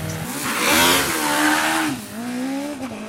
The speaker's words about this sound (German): Mit 80 PS, potenziell 160 Kilometern pro Stunde und vor allem ohne gröbere Zwischenfälle rast der selbstkonstruierte C116 Rennwagen des Oscar Racing Teams über die Teststrecke in Melk.